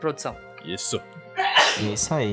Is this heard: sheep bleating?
no